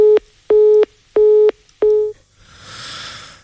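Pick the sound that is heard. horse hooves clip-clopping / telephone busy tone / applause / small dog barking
telephone busy tone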